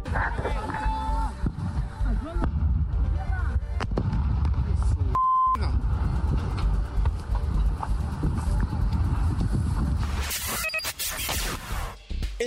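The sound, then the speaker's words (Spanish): A loud, sustained barrage of fireworks exploding at a fireworks depot in the La Saucera area of Tultepec, State of Mexico: dense crackling, popping and deep booming blasts overlapping continuously, with a brief cutout partway through before the bangs resume. “en Tultepec, Estado de México, se registró otra explosión de un polvorín, ahora en la zona conocida como La Saucera.”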